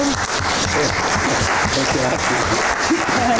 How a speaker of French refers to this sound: Je pense qu'on peut vous applaudir de nouveau.